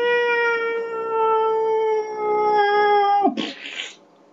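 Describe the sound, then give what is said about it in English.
A person imitates a cat's meow in one long, drawn-out, steady-pitched note lasting about three seconds, then it breaks off into a short breathy rasp. The voice is fairly loud. “Do we see cats going, meow,”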